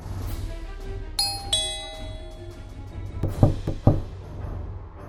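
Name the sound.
doorbell ringing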